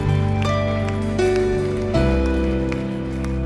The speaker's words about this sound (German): Lass uns mal einen Applaus geben. Jesus dem Retter, aber auch mutigen Personen, die sagen, ich möchte das. Vielen Dank.